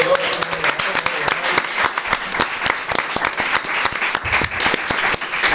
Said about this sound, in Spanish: Con lo cual se lleva la donación a la Wikipedia. Un aplauso.